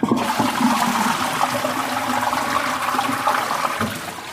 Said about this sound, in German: gehen fürs Klo drauf. What? Das hätte ich nicht gedacht. Pro Spülung 6 bis 8 Liter.